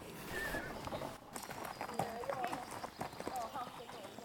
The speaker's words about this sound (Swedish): som red på islandshästen Gutti.